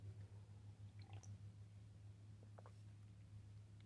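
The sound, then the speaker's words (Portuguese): A speaker pauses to quietly drink water, with a few soft sipping and swallowing sounds in two brief bursts over a steady low electrical hum. No one speaks. “Uma pausa para a água.”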